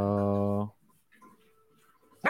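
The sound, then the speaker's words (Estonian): A calm dog lying down with its ears down growls low and steady for just under a second, loud, then it goes quiet until a short, sharp burst of noise at the end. “selged signaalid ongi ja. see, et ta lõriseb juba.”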